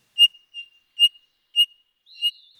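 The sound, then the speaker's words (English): A Townsend's solitaire gives a series of five high, squeaky whistled notes at a steady, slightly uneven pace, like a creaking wheel, clear with silence between calls. “Look for them atop fruit filled junipers our local one is confusingly called the Eastern Red Cedar, and listen for the odd high pitched call they give year round, which sounds like someone walking a bike with a squeaky wheel.”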